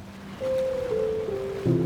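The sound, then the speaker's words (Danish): Water lapping steadily at a harbour edge in the evening, a soft continuous wash with a sustained low droning tone running over it, shifting pitch slightly near the end. No voices. “Og som aftenen trækker ud, når du fejrer den her befrielse med et ekstra glas vin sidder du til sidst alene ved havnekanten.”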